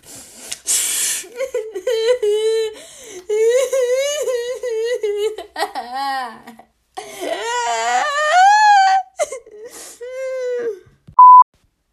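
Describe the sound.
A voice puts on theatrical, exaggerated sobbing and wailing, acting out a video game player crying after dying in the game, with quivering high whimpers and drawn-out moans rising and falling over several seconds, ending with a short sharp beep.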